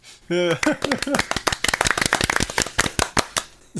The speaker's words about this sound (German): Aber wenn wir jetzt so, klatschen. So, können wir klatschen. Ja, wir klatschen.